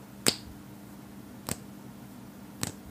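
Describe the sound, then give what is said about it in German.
Three crisp, dry clacks like fingernails tapping on wood, heard while lying in bed, spaced about a second apart. The first is the sharpest, and the sounds rise above a quiet, steady low hum with no talking. “Oder wenn die, wenn die Fingernägel am, am Holz klackern.”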